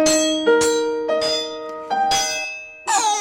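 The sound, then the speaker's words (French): Several piano notes are struck one after another as keys are pressed, each with a crisp attack of a small hammer striking the taut strings, which ring, sustain and overlap, fairly loud with no voices. “Et une corde percutée par un marteau vibre et c'est ça qui produit le son.”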